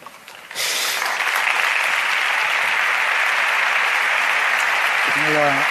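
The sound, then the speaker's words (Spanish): A large audience bursts into loud, sustained applause after a quiet moment, a renewed ovation for the pregonero (proclamation speaker) after his speech, a dense steady roar of clapping that continues without letup, with a brief voice surfacing at the very end. “ovación para, nueva ovación para el pregonero en ese recorrido que ha hecho de lo que han supuesto para él estos dos años de pandemia.”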